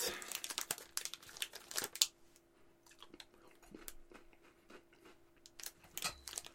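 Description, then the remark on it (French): Dense crinkling of a Kit Kat candy bar wrapper being torn open, a burst of crackly rustles in the first two seconds followed by scattered smaller crinkles and snaps. “Prochaine food fight sera oh, la Kit Kat et la Mars. Oh shit! Là, besoin il va falloir que je goûte.”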